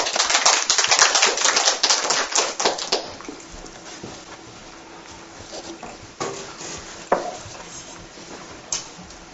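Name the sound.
audience applause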